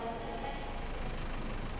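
A bus engine drones steadily from inside the vehicle as the bus travels through fields from Retiro station in Buenos Aires, Argentina, toward the city of Balcarce, a low, even rumble that holds at a constant level without pauses or changes in pitch.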